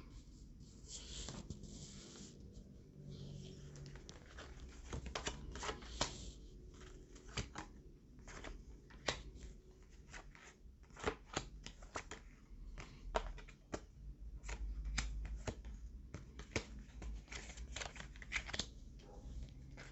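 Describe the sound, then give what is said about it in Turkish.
Tarot cards are shuffled and handled, with repeated crisp flicks, riffles and slaps in an uneven rhythm, fairly quiet with no talking. “Kartlarını seçtim. Hemen sarı tüyle başlayacağım.”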